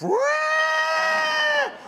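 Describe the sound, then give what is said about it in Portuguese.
A single loud, sustained trumpeting blare made by a human voice imitating an elephant, rising sharply at the start, holding a steady brassy pitch for over a second, then dropping off abruptly. “No que ela berrou, os elefantes fizeram.”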